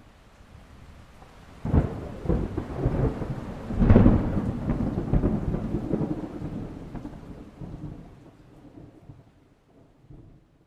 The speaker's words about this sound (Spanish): estos momentos son los que los truenos son más intensos, hace temblar los cristales de las ventanas. Esto precisamente es la energía sonora que se transmite a los vidrios y se convierte en energía cinética.